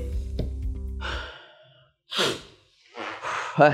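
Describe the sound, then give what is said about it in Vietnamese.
Heavy breathing as someone who ran out of breath while talking catches their breath: a long sighing exhale, then a couple of sharper breaths in and out, with no talking. “vì bị uh, hụt hơi quá ra thở một xíu”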